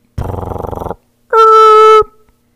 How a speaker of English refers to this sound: Is that the sound your Keurig makes when you're just trying to wake up in the morning?